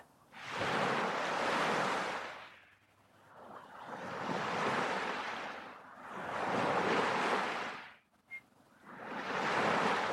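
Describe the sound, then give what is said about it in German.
Ocean waves roll in and break on the shore in a slow, steady rhythm, each broad whoosh swelling and fading back, about four surges in all, with no voices present. “Falls du ins Meer gehst, dann Lass dich für einen Moment treiben von den Wellen.”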